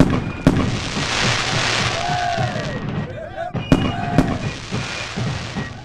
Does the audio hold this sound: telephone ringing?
no